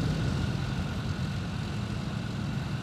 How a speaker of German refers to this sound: Nachdem sie ungefähr einen Kilometer gefahren waren, kamen die meterhohen Zäune des Flughafens in Sicht. Ein Helikopter donnerte über sie hinweg